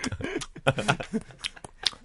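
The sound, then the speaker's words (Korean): A voice imitates loud, wet lip-smacking chewing, a quick irregular run of smacks and clicks, with brief voiced bits mixed in, acting out an annoying chewing noise. “자 쩝쩝 소리 거슬려 저한테 한 번 해주시죠 야너좀 쩝쩝 그거 뭐야?”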